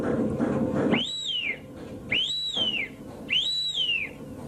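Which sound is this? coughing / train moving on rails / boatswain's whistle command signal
boatswain's whistle command signal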